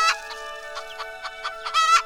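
A hen clucks in a quick, uneven series of short, mid-pitched bursts, ending with a slightly louder, drawn-out cluck, with no talking.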